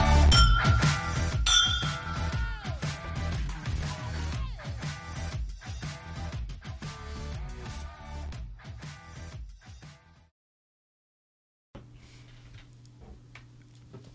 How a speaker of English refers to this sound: So raise your glass. Cheers to Jesus.